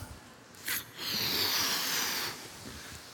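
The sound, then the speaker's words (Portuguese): An empty balloon is inflated during a church demonstration: a short puff of air, then a steady, breathy rush of blowing lasting over a second before it stops. No one speaks. “Esse balão vazio é como um livro qualquer. É um balão.”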